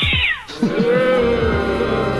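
A cat lets out loud, drawn-out meows that stretch into a wavering yowl, continuous for a couple of seconds with no talking.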